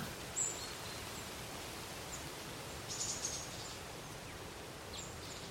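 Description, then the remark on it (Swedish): Soft, steady rustling of tree leaves stirred by the wind, faint and continuous, with a few brief high chirps from birds or insects. “Trädens prasslande i vinden.”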